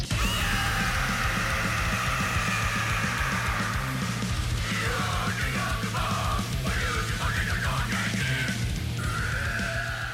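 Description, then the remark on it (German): A cartoon character in a karaoke box screams and growls a heavy metal song over loud, dense backing music, harsh and sustained for the whole stretch, at full volume with no pauses. “Ihr habt es gerade gehört, Agrezzoco schreit wirklich. Das ist schon mehr als Schauten”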